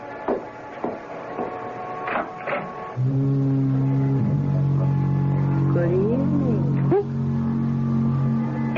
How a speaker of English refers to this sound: the weather's changing. I can scarcely see the beam of the lighthouse. It's getting all misty. And don't be frightened if you hear the foghorn.